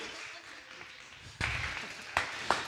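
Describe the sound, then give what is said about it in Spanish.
An audience breaks into a burst of applause, a dense wash of many hands clapping at moderate volume, with a few sharper claps standing out near the end. “No me aplaudan hasta el final, ya después me aplauden.”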